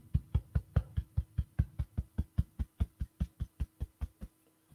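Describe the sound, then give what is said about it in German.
A steady series of about twenty soft, dull thumps as a hand taps rhythmically on one's own chest over the heart, evenly paced, with no talking, ending in quiet. “Mal klopfen,”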